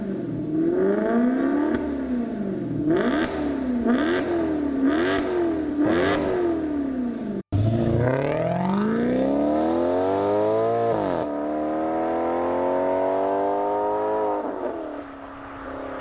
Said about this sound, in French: On entend des gros bruits de V8 toute la soirée avec une grande tourisme S de folie, certainement un 4 litres 2.